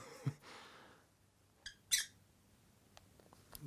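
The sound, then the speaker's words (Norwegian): A pet bird lets out two quick, scratchy chirps close together, with a few soft clicks and rustles before and after. No one speaks. “Det er gøy med disse fuglene, for de er jo de er veldig flinke foreldre, og så er de veldig snille med hverandre.”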